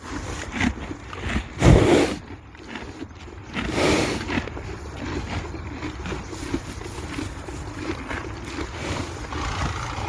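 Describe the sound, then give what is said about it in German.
A horse munches feed, with steady crunching and grinding, a couple of louder rustling bursts, and low snorts and breath against a constant noisy background. “Ich würde es mal hier reinschneiden von, äh, von einem anderen Pferd einfach.”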